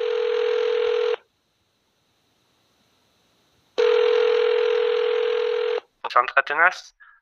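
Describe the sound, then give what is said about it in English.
A telephone rings twice, each a long buzzy tone of a second or two separated by a pause, loud: a call to a 24/7 lynx hotline from someone who sighted a lynx in town. A voice then briefly starts speaking as the call is answered. “So we get a call from uh, uh, somebody who sighted the lynx in town.”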